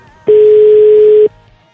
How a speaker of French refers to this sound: Ça sonne. C'est une, c'est une très belle sonnerie. Une sonnerie de téléphone. Pour ceux qui auraient pas connu. Allez, réponds. Il a dû voir mon numéro, euh, du coup il veut pas décrocher.